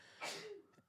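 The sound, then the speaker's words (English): A single sharp sneeze bursts out, a quick breathy explosion that fades within half a second, followed by faint rustling. “Bless you.”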